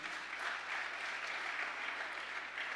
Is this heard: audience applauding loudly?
yes